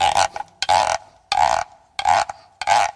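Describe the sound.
An instrument the player made himself, imitating a pig: about five loud, rasping grunts in an uneven rhythm, each a buzzy, throaty burst with short gaps between. No one speaks.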